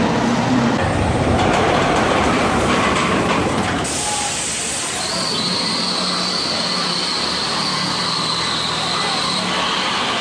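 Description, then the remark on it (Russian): An amusement park ride called the Screaming Condor rumbles loudly and steadily on its track, a dense roar that turns rougher partway through, joined later by a thin, sustained high-pitched squeal of wheels. No one speaks. “А это вы только что услышали грохот аттракциона, который называется «Кричащий кондор».”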